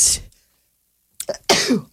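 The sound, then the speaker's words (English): A sharp sneeze bursts out and cuts off, followed after a short silence by another loud, breathy burst, like a second sneeze or a gasping exhale. “My goodness, I got the tickle nose.”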